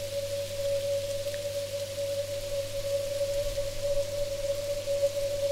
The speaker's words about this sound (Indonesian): Dalam perjalanan, tiba-tiba gerimis kecil mulai turun.